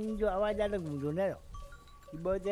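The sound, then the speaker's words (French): Livestock bleat in long, wavering calls, with a clear bell ringing steadily between them before another bleat begins. The animals sound fairly loud, with no talking. The livestock wear bells, each with its own sound, while grazing in the desert of Kutch. “On envoyait tout le bétail paître dans les déserts et on pouvait les identifier à partir des sons de leurs cloches.”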